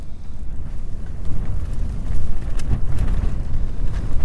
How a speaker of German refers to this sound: Windböen mit Geschwindigkeiten von über 12 Metern die Sekunde – und nahezu horizontal fallendem Regen.